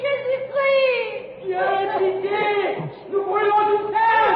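A loud, agitated, hysterical murmur from a crowd watching Joan of Arc about to be burned, many overlapping voices wailing and moaning in rising and falling waves, with no clear words, dipping briefly before surging again.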